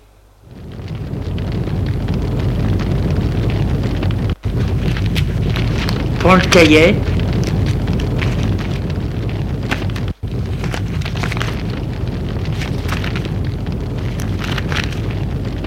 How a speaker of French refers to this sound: Et va dans sa chambre. Là, dans sa chambre, il fait un feu de cheminée